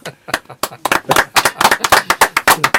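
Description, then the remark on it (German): Loud hand clapping in a quick, steady rhythm, about a dozen and a half sharp claps over a few seconds, with no talking over them. “Ich kann einmal klatschen laut.”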